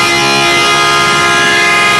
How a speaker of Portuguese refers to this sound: Eita buzina da lasqueira essa aqui! Essa buzina é pra te avisar Não, que... essa buzina vai ser pra sexta-feira. Essa buzina de hoje é pra avisar que a segunda parcela do 13 terceiro tá caindo até hoje.